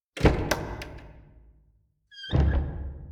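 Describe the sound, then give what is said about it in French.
The large heavy oak door of a church opens with a deep thunk and a rumbling, echoing decay, then a second heavy clunk joined by a brief high creak, with no voices. “ouvrit la grande porte en chaîne face à elle, puis entra à l'intérieur du lieu de culte.”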